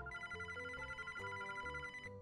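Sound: mobile phone ringing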